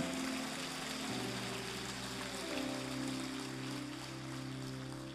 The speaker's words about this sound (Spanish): Ahora dale un aplauso más al Señor.